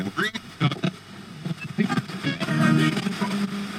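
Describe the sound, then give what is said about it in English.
An EVP machine continually scans radio waves for unexplained sounds: choppy radio static rapidly jumps between stations, spitting out brief garbled fragments of voices and noise in quick, uneven bursts, fairly loud. “EVP machine for capturing electronic voice phenomena continually scans radio waves for unexplained sounds.”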